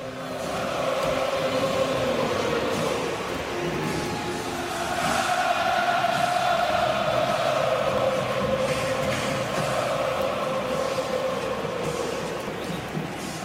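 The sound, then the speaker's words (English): A huge stadium crowd at a game against the New England Patriots chants the tomahawk chop while making the chopping arm motion, thousands of voices merging into a loud, droning, sustained chant with a roaring wash of noise underneath, reaching 142.2 decibels, continuing for the whole stretch. “While chanting, the fans are doing the famed tomahawk chop, where you put your arm straight out in front of you then bend it at the elbow, bringing your thumb to your shoulder and then back down again, like you're using an axe to chop.”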